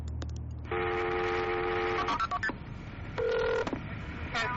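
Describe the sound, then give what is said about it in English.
Telephone dialing tones as a 911 emergency call is transferred at police headquarters: a long steady electronic tone, a few clicks, then a shorter second tone, loud over a faint line hiss. “the 911 call continues. Susan White has been transferred”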